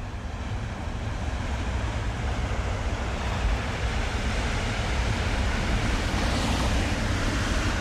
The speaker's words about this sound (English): Back on Earth, by the coast, in Berlevåg, at the very end of the Earth, the far north of Norway, the constant waves of the Barents Sea daily smash the seawall protecting the town.